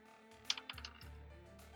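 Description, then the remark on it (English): Physical dice clatter across a hard surface, a quick burst of four or five sharp clicks and taps that settle within a second, with no one talking. A real die, not an app, rolled for a perception check in a tabletop role-playing game, landing on three. “That, that, was a real dice too.”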